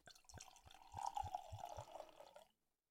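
Cold wine poured into a glass for another player in a wine-guessing game, a steady liquid stream with rhythmic low glugs about three times a second, rising slightly in pitch as the glass fills, then stopping abruptly after two and a half seconds.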